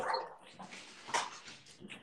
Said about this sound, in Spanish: Nada, es que tengo su juguete, entonces me está ladrando.